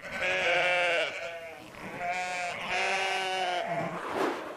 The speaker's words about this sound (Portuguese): Será o som de uma buzina de um carro muito antigo, o som de um grupo de ovelhas ou o som de um papagaio? E a resposta correta é um grupo de ovelhas.